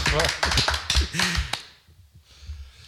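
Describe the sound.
A short burst of applause from a few people: quick, sharp, uneven claps mixed with voices and laughter. It stops abruptly after about a second and a half, leaving quiet murmuring.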